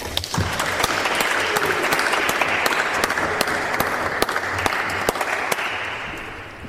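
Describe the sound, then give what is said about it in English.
Sustained audience applause after musician Irwin's final performance of the evening session of the 100,000 Poets for Change Kingston event at the Spire on September 21st: a dense, steady wash of many hands clapping, holding at an even level for several seconds with no talking over it. “Let's give him another hand.”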